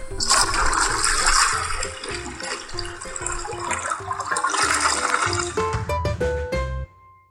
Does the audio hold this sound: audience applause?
no